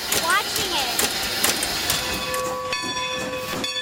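An American steam locomotive, now running on a 7 km line in Pennsylvania, hisses loudly and steadily, with periodic puffing bursts, and a steam whistle's sustained tone joins in toward the end.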